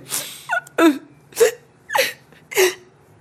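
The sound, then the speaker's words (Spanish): A woman sobs in short, breathy gasps, five hitching catches of breath in a steady rhythm, fairly loud, with no talking; she is crying while sitting in the corner of a bed in the dark at night. “Y veo que era la sombra de mi amiga llorando sentada en la esquina de la cama.”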